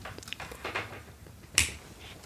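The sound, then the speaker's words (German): A single sharp, crisp click of a light switch behind a shelf, switching on a lamp, stands out once against a quiet, faintly rustling background with no one speaking. “Hier ist hinter dem Regal ein Lichtschalter für eine Lampe.”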